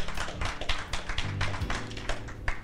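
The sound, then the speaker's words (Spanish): A crowd gives the Lord a loud round of applause after a Bible passage is read, many hands clapping at once in a dense, continuous patter, with a low sustained tone humming underneath. “¿Cuántos dan un fuerte aplauso al Señor?”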